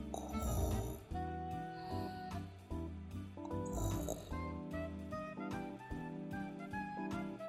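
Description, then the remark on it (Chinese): A little spotted cat, dozing by a warm stove, snoring in slow, rhythmic low rumbles, several snores repeating over steady background music with sustained tones. “又过了一会儿，小花猫打起了呼噜，”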